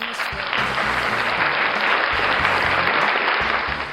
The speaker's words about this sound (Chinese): 现在，那有请我们正方开始阐述自己的观点，好不好？那掌声有请我们的正方，有请。